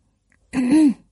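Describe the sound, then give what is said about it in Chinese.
A single throat clearing by a teacher standing at a lectern in a classroom, a low, voiced rumbling "ahem" lasting about half a second, fairly loud and on its own with no talking around it. “龙老师走进十二生肖班，他站在讲台上，清了清嗓子，和蔼的问：”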